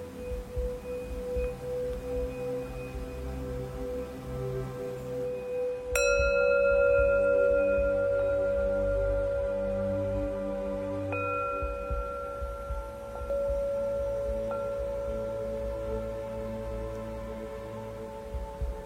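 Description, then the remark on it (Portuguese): A meditation bell is struck, its bright shimmering tone ringing and slowly fading, then struck again more softly a few seconds later, over a low steady hum with no talking. “Deixe que o sino sirva de um lembrete para você retornar a este momento.”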